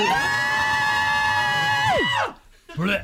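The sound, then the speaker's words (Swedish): After a countdown, a group of voices belts out a loud, sustained 8-bit video-game-style power-metal scream in unison, holding the high note for about two seconds before it swoops downward, followed by a short burst of whooping. “För här avslutar vi alltid med ett riktigt 8-bitars power metal-skrik.”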